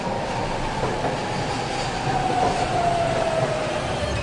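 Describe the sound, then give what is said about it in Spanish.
A Japanese Kodama bullet train bound for Shin-Osaka rushes along with a steady, dense roar and rumble, while a thin whine glides slowly downward in pitch over about four seconds. No one speaks. “この電車は小玉号新大阪行きです Kodama Station”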